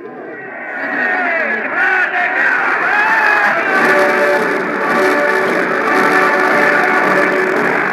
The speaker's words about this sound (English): The German troops were greeted by hysterical crowds.